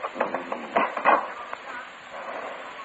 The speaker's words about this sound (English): there was a knife on the slab there, a butcher knife. I felt around the door for a crack, slipped the knife in, and, and twisted.